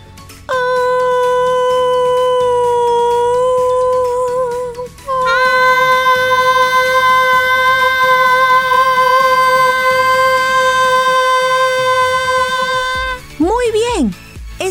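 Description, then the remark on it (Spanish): A voice sings two long, steady high notes in a light head voice during a singing exercise, the second held for about eight seconds, then finishes with a brief sliding vocal swoop. No talking. “Sentí como si la voz estuviera sonando en mi cabeza.”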